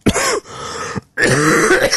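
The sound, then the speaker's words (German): Loud coughing and rough throat clearing in two bursts separated by a brief silence, the second burst harsher and more drawn out, with no talking. “und mm, gesagt habe, ich möchte nicht husten, bitte geben Sie mir was”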